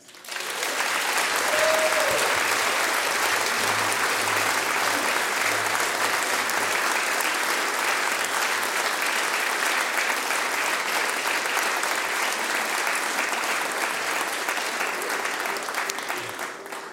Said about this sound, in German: Und groß Applaus für de, die dafür sorgen, dass ihr das überhaupt hören könnt. Uns Technikers!